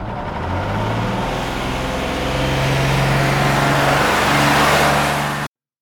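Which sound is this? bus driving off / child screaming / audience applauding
bus driving off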